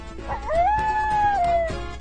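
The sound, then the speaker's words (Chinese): A single coyote howl that glides upward into a long, steady, fairly high-pitched note before tapering off, heard on its own with no talking. “爹狗，你看，有一只草原狼。”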